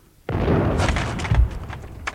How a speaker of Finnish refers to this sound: Maa vavahti, kun suorasuuntauksella ammuttu kuusituumainen jyrähti miljoonalle.